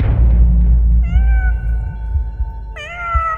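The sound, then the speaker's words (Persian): A cat, Behemoth, meows twice in clear succession from on top of a machine in a workshop, a drawn-out tonal cry followed by a sharper, higher one, over a low rumbling background hum. “باز تا یه قدم برداشتم که برم سمتش ببینم خودشه یا نه دوباره غیب شد این دفعه صدا از بالای دستگاه اومد”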